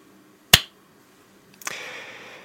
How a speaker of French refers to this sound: Oui, j'ai fait un clap, ça ne sert à rien, mais ça me met dans l'ambiance.